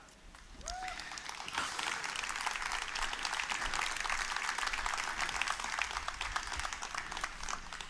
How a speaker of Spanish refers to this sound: Y yo me alegro que usted aplauda.